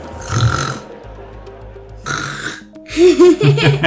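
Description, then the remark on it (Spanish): A voice imitates giants snoring loudly in a few exaggerated bursts: a long rasping snore, a pause with low droning, then a rougher, piggy snort-like snore rising to a laugh-tinged finish. “¿cómo crees que roncaban los gigantes? ¿Cómo crees que hacían?”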